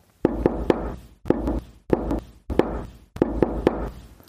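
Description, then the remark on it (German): Repeated knocking at night, recorded on a mobile phone, in groups of two or three sharp raps with short pauses between bursts, slightly boomy; the knocking is an SOS signal; no voices. “Und dann irgendwann, aber nach längerer Zeit, hat sie das Klopfen nachts mit dem Handy aufgenommen.”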